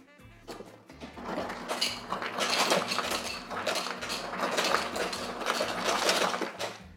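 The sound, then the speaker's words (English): Ice cubes clatter and rattle into a cocktail shaker for a lime cocktail in dense, irregular bursts for several seconds, over a steady low mechanical hum from an ice dispenser. No one speaks. “So we're gonna get a little bit of ice.”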